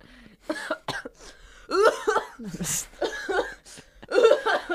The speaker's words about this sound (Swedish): Vi har en eh, hostanfall här i mm, podden.